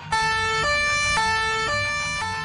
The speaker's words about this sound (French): La police, c'est d'abord des sirènes. En tout cas, c'est ce qu'on entend en premier.